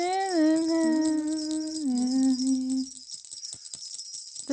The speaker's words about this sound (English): Christmas time is here. My jingle bell's not working as well.